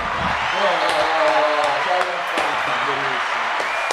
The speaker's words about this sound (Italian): chiudiamo così, andiamo eh, così sull'applauso della gente.